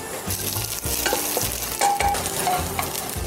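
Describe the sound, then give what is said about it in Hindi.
Ginger and garlic paste sizzles and fries in a hot pan of oil with fried onions for a mutton dish while a utensil stirs and scrapes it. It makes a steady crackling hiss with repeated scraping strokes; no one speaks. “यहाँ पे अब इस पैन में तेल डालना जैसे ही तेल गर्म हो जाए इसमें प्याज डालेंगे प्याज को अच्छे से भूनना है जैसे ही प्याज भुन जाएगा बाकी के सब मसाले डाल देंगे इसमें अब थोड़ा सा अदरक और लहसुन का पेस्ट”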